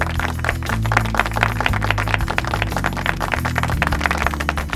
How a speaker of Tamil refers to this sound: so அதை நம்ம தெரியப்படுத்துறதுக்காக இன்னைக்கு நம்ம வீட்டில் இருக்கக்கூடிய அக்காக்களுக்கும் அம்மாக்களுக்கும் கைத்தட்டல் மூலமா பாராட்டுக்களை தெரிவிச்சிடலாமா இதோ அந்த கைத்தட்டல் நேர்களுக்காக வந்துட்டு இருக்கு